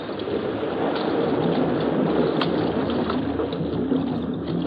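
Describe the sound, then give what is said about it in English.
A boat moves steadily across the water toward an island, a little less than a mile offshore, its low engine drone and rushing wash blending into one loud, unbroken rumble that fills the whole stretch without pause or voices. “is as close to the island as we had better go with the boat.”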